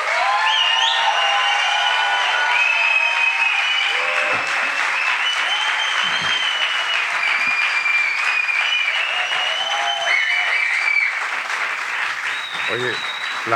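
A theater audience at the Teatro del Barrio applauds steadily and loudly throughout to welcome basketball player Joe Arlaucas, a dense wash of clapping with scattered whoops and cheers rising above it.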